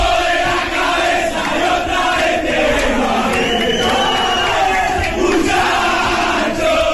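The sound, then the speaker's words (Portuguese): A large crowd of Argentine football fans chants together at the Maracanã stadium in a dense, continuous roar, voices rising and falling in rhythmic unison, with an echoing quality and no individual speech standing out. “no estádio lá no Maracanã. Torcedores, torcedores argentinos.”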